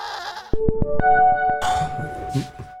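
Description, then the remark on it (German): A goat bleats loudly in a wavering, drawn-out cry, followed by a second bleat overlapping with other farmyard animal calls; no one speaks. “Glückliche Ziegen sind die wichtigste Zutat für unseren Qualitätsziegenkäse.”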